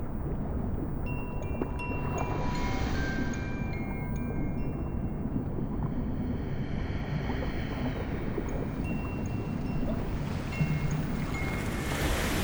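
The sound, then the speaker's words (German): Steady, soft wash of warm salt water at a beach fills the whole stretch, a continuous low rumble of small waves lapping, with a faint breezy hiss and no voices. “wie sie still im Wasser liegt und sich doch fein bewegt in den Wellen.”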